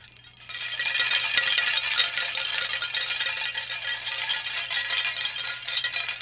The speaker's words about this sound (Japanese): だいぶちょっと硬いカラカラした音になってますねこれ何かというと、えー、プラ板がぶら下がっています、まあ、子供がある日プラ板をこう持って帰ってきたのを見てあこれいい音しそうだなと思ってぶら下げたら、まあ、こんなカラカラカラっていう、なんか僕の中では、こうプラスチックとガラスの間みたいな音だなというふうに感じているんですけども